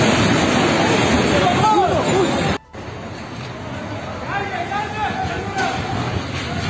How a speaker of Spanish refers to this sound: enfrente de un edificio de apartamentos, y el edificio se viene abajo con una réplica